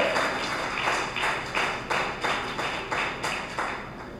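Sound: audience applauding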